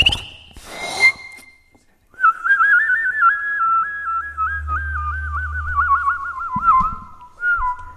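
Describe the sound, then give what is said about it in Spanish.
A person whistles a bird-like goldfinch song, a sustained warbling tone with rapid trills and quick pitch flutters lasting several seconds, preceded by a short breathy burst, fairly loud. “Haces como un jilguerillo, como un pajarito.”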